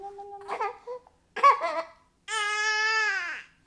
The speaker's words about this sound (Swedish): Bebisen vi hör är sju veckor när vi träffar honom och hans mamma